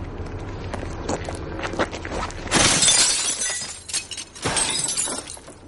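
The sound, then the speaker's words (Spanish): A bearded man walks to a streetlight, picks a stone off the ground and throws it at the bulb: a few scuffing footsteps and crunchy ground sounds, then a loud burst of shattering glass followed by tinkling fragments. “Al llegar hasta allí, busca una piedra en el suelo y la lanza contra la bombilla haciéndola añicos.”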